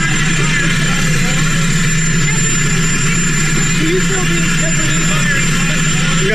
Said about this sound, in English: I don't know if you What, catch the question because you had the, the jet engine in the background there, but are you going to fire Mueller?